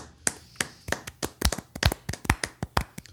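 A short burst of hand clapping: about a dozen sharp, crisp claps in a slightly uneven, quickening rhythm, moderately loud, with no voices over it, applauding a contest winner.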